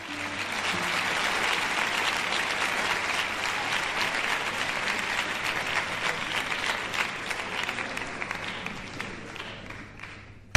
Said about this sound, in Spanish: Con solo 16 años debuta en París. Esto ocurrió en 1884. Debuta con una entregada ovación del público francés.